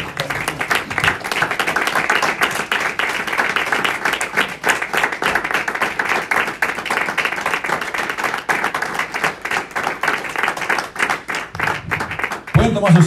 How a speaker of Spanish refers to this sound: Bendito Dios. Le damos un aplauso más al Señor.